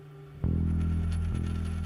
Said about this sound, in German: Er kullert laut klimpernd zu Boden.